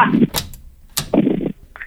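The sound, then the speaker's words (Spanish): A door is opened: a couple of sharp latch clicks and knocks, with short rattling, scraping bursts from the door moving, then a faint high squeak at the end. “A ver, ya abrí la pinche puerta, güey.”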